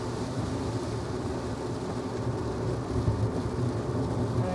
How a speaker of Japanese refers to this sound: 雨ひどくなってきたとかパラパラがひどい